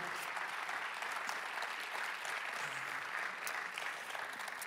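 An audience at a church service applauds steadily, a dense wash of many hands clapping at an even level throughout without any talking over it.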